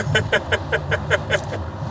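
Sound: car driving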